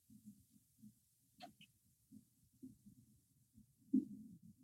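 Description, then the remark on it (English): Muffled, low Nyabingi hand drums thump in a steady, loping rhythm in a studio recording, soft, with a brief higher chirp partway through and a louder flurry of beats near the end. “these are guys that just play the hand drums for hours on end”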